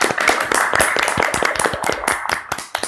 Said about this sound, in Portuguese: Então, é, eu acho que o, o Maxwell merece palmas nesse momento, palmas para o Maxwell.